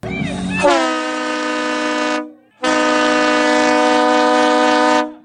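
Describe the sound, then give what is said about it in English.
A loud train horn blasts twice in long sustained chords, the first roughly a second and a half and the second about two and a half seconds, with a brief gap between them. “Ah, the sound of the train horn.”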